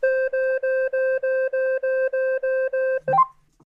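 A rapid string of about ten identical electronic beeps from a device whose crown is turned to unlock its screen, evenly spaced and loud, followed by a brief rising chirp as the sequence stops.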